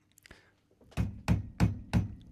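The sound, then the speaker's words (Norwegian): Four heavy, booming knocks pound on a neighbouring door in New York at a steady, forceful rhythm, each a deep thud with a sharp attack, preceded by a couple of faint lighter taps. “Det hørtes ut som en rambukk som drev prøvde å bryte opp døra ved siden av.”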